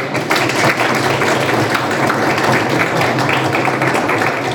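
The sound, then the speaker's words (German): Steady, dense applause from an audience fills the space, a continuous wash of many hands clapping at once without pause, fairly loud and even throughout. “Ich glaube, auch das ist ein Applaus.”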